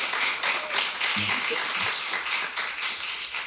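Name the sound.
applause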